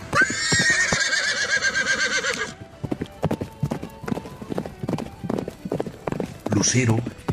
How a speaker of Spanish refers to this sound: Las patas delanteras de Lucero se alzaron con energía, unido de un fuerte relinche